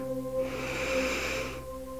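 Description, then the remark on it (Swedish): A single long, deep breath drawn in through the nose, airy, lasting about a second over a soft, steady musical drone. “Andas in.”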